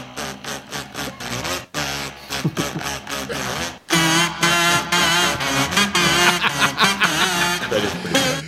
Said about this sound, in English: So we tried maybe the kazoo version of that